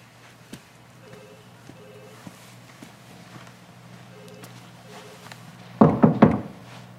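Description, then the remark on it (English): Three firm knocks on the wooden door of the mayor's office, made by a nervous visitor, land in quick succession near the end, following several seconds of quiet with faint scattered ticks. “Uh, you know, walking into the mayor's office, nervous, you know, about opening the door.”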